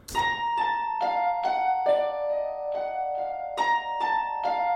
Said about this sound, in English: Um, yeah, but the um, the actual the actual melody kind of thing that comes in, um, it happens right around here, and it sounds. I use the harp and celeste from the the Bernard Herrmann stuff. It sounds like this.